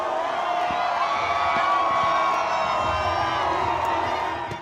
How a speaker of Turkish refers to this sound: Amerika Birleşik Devletleri'nde yüz binlerce kişi yağmura rağmen yeni yıl için New York'ta Times Meydanı'ndaydı. Saatler 12'yi gösterdiğinde dev kristal top geri sayımla indirildi. Kalabalık şarkılarla dans ederek eğlendi.